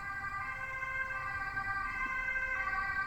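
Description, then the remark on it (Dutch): A loud ambulance siren wails continuously with steady stacked tones over low traffic rumble as the ambulance passes by, filling the whole stretch without any talking. “En dat klinkt misschien een beetje gek, maar ehm, ik wacht heel even want er komt eh, een ambulance langs met heel harde sirenes.”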